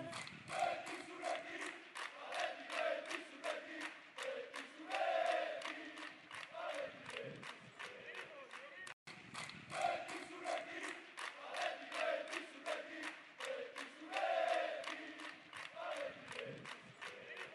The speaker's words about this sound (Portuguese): A música para empurrar a equipe do Bilbao nas horas em que falta força. É a hora que a torcida entra em ação e canta que estará sempre contigo, não importa o momento.